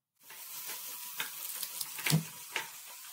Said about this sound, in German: Ich habe mich mit einer Influenzmaschine aufgeladen und nehme mich jetzt den Löffel mit einem Eis in der Hand. Zack, der Funke springt über und entzündet den Geist.